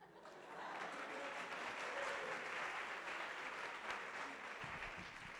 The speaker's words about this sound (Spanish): Aplausos.